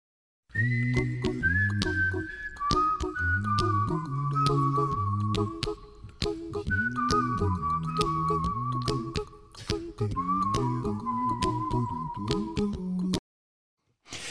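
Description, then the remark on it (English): A bright whistled tune, the intro of a famous song, steps downward in long held notes, repeating its phrase twice over a full band backing with bass and steady drum hits, then stops abruptly. “What's funny is that's not actually the melody, that's just the intro.”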